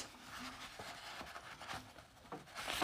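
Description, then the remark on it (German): Quiet crinkling and rustling of a sheet of paper being picked up by hand and positioned in the middle for loading, with soft scrapes and a few sharper crackles building toward the end. “Jetzt nehme ich das Papier in die Hand und”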